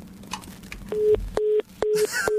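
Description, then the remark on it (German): A telephone line tone for an incoming call sounds in four short, evenly spaced beeps, each cut by sharp clicks, fairly loud, with no one talking. “oh, oh, oh, das Anruf. Telefon.”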